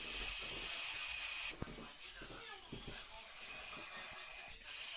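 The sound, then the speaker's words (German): A single iron block is ground down to make it thinner, including a side that was not cut precisely: a loud, harsh, high-pitched hiss with a steady whining tone for about a second and a half, then dropping away before returning briefly at the end. “Jetzt schleift er das.”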